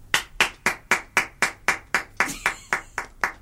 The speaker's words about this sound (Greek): Γιατί χειροκροτάει. Δεν ξέρω γιατί. Είπε κάτι καλό τώρα. Πρέπει να χειροκροτήσουμε.